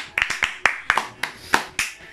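applause and clapping

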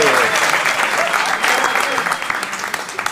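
audience applauding

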